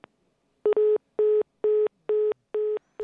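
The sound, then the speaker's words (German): A telephone busy tone after a dropped call: a single steady pitch beeping on and off in quick, even pulses, about six in a row, loud and clear with no voices. “Ja, und an dieser Stelle ist uns das Telefon dann ähm, das, die Verbindung abgebrochen.”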